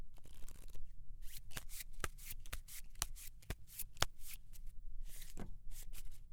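Fortune-telling cards are shuffled for a love reading, a steady stream of crisp papery riffles and slaps with sharper snaps scattered throughout. No one speaks.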